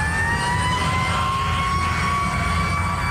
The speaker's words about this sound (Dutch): De militaire helikopter scheert over het Pentagon. Alsof hij nieuwsgierig is naar wat er aan de zuidzijde van het ministerie gebeurt.